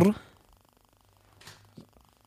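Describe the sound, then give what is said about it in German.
A mobile phone vibrates with a low, steady buzzing hum that runs faintly through the whole moment, while short bursts of voices briefly break in over it. “Was ist jetzt wieder am Vibrieren hier?”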